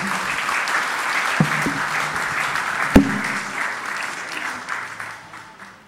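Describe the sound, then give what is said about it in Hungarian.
An audience at an exhibition-related event claps steadily in thanks, a dense, continuous wash of applause, with a few sharper individual claps standing out before it gradually tapers off toward the end. “Kérünk egy tapsot, mert most következő”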